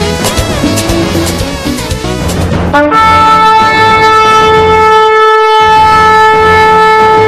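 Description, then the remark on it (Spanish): Trumpets blare a loud fanfare of quick shifting notes, then settle into one long, steady held chord that rings out bright and sustained to the end, with no voices. “Se oyen las trompetas, una voz que clama en el desierto.”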